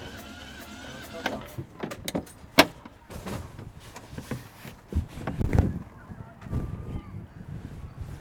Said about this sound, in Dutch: Klinkt niet goed, hè? Nee. Heel leuk voor Primlaat hij lekt op de inlaatklep. Ja, denk ik.